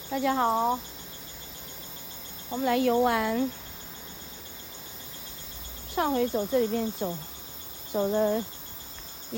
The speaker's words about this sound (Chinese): 嗯，现在听到的是夏天的蝉叫哦，有吗？